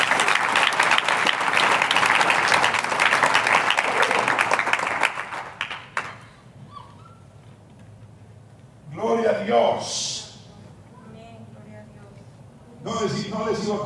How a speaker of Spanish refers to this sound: ¿Cuántos convencidos hay aquí? Un aplauso al Señor.